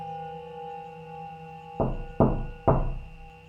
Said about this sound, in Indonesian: Ada yang mengetok pintu depan rumahnya.